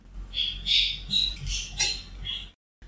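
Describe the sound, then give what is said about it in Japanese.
A pet parakeet kept at home chirps and squawks in a quick, busy string of short high calls, steady for a couple of seconds, over a faint low hum with no talking. “少し耳を澄ますと、耳を澄まさなくても聞こえますでしょうか私、家でインコを飼っておりまして、はい、ピヨピヨと聞こえると思うんですが”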